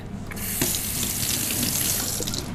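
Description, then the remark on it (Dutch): Water runs steadily from a tap into a sink, a continuous hiss and splash that starts abruptly and keeps flowing without a break, with no voices. “Hoe wonder dat wij, eh, hoe wonder, dat wij zoveel water hebben en gewoon weggooien.”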